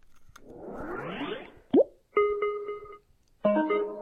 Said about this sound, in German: So, das, was ihr gehört habt, war diese Wusch, dass er startet. Und diese Dulink ist, äh, dass er sich sofort mit Bluetooth verbunden hat. Ihr habt mitbekommen, das geht ratzfatz, aber ist ja heutzutage auch nichts Ungewöhnliches mehr.